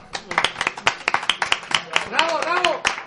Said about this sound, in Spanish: Un aplauso, ¿no? Un aplauso